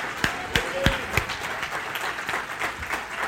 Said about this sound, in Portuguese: A hora que eu fiz o apelo aqui, vocês não têm noção da quantidade de pessoas que levantou a mão. Você pode aplaudir a Deus por isso?